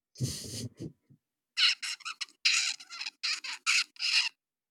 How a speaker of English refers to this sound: And what's cool is young birds babble kind of like babies. So they just sort of make noise that doesn't really have structure yet. Uh, so this is a 38 day old juvenile babbling baby zebra finch.